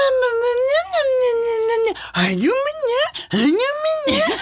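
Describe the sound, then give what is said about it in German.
A person speaks in an exaggerated, sing-song high-pitched voice, swooping up and down in long wavering tones like cooing baby talk aimed at a dog, fairly loud. “Wie ist deine ja, Hundestimme? Das ist ja wie eine Babystimme auch.”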